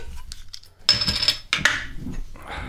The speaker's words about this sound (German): Genau, öffnen wir die Flasche.